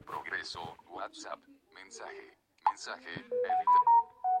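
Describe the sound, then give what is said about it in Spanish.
Quiet speech gives way to a phone's incoming-message notification tone, a downloaded tone rather than the preinstalled one: a short electronic melody of about five clear, steady beeps that rise and then dip slightly, fairly loud. “bueno, ahí ya llegó bueno, este sonido que le tengo, tengan en cuenta que no viene pre, preinstalado.”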